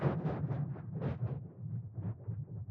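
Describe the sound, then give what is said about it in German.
Synthesized wind-like noise, rough and granular, swells and gusts in uneven pulses over a steady low hum. It is moderately loud, with no voices. “Ja, aber es ist immer irgendwie halt Windgeräusch, irgendwie”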